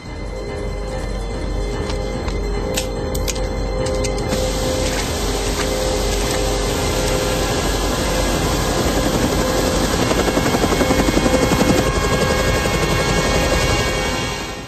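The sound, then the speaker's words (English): A B-212 helicopter on a rooftop roars loudly and steadily, its engine whine and thumping rotor blades filling the whole stretch, with a few sharp clicks early on and no voices. “I need a pilot program for a B-212 helicopter.”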